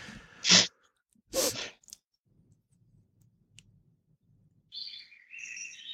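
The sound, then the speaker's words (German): A bird chirps outdoors, heard through an open balcony door: two sharp bursts, a quiet pause with faint low rumbling, then a longer warbling phrase. No one speaks. “Was ist das eigentlich für ein Vogel da?”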